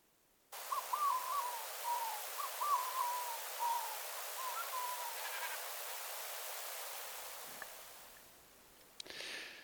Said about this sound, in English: So we've heard some distant Manx Shearwater calls coming from high up in the hills.